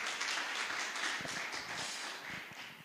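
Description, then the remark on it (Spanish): An audience applauding for those connected online and those present: a dense, steady wash of many hands clapping at moderate loudness throughout, with scattered sharper claps standing out, and no voices heard. “Muy bien, este aplauso es para ustedes.”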